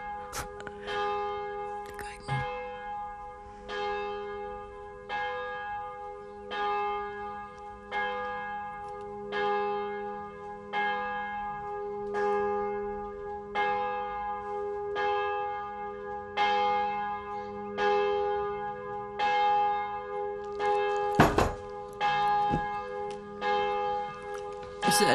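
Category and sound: signal or alarm, church bells ringing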